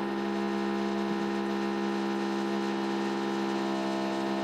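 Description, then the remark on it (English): A power drill whines steadily from upstairs, a loud, continuous droning motor tone with no pauses and no one talking. “It's someone with a drill upstairs.”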